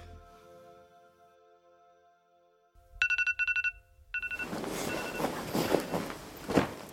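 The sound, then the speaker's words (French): A snoozed alarm clock rings at 10 a.m. in rapid bursts of high, bright electronic beeps for about a second, then stops abruptly and gives way to loud rustling noise. “Il est 10 h j'ai retardé trois fois mon réveil”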